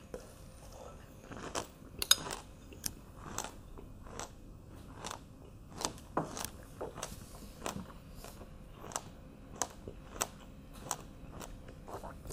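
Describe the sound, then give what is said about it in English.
Wet chewing of spoonfuls of pomegranate seeds eaten as a snack, with a steady run of sharp little crunches and pops as the seeds burst, roughly one or two per second, with no talking. “I've been eating pomegranates, brother or sister. Spoonfuls of pomegranate.”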